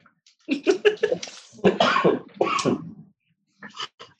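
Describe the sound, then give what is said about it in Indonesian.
Someone coughs in several rough, repeated fits, a quick cluster of hacking coughs followed by longer, throaty bursts and a final short pair after a brief pause. “gue batuk batuk gak apa apa kan ya masuk ke masuk ke audio ya.”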